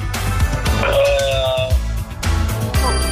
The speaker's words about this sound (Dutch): Enig idee welk liedje je nu op de achtergrond hoort?